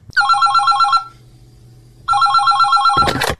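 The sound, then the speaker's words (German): A telephone rings loudly in two long warbling bursts separated by a pause, then a brief clattering noise like a handset being picked up cuts it off, as two metal hard-rock icons call each other in the game Lord of the Ring Rings. “Und ähm, genau, wir spielen jetzt Lord of the Ring Rings, das heißt unsere zwei Metal-Hardrock-Ikonen ähm, telefonieren gleich miteinander.”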